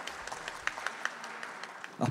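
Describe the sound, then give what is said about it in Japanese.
A crowd of people applauding, a steady dense patter of many hands clapping at moderate volume, with a brief louder burst near the end, welcoming a company president onto the stage at an investor relations presentation for United Urban Investment Corporation, a Japanese REIT. “どうぞ皆様大きな拍手をお送りくださいませよろしくお願いいたします”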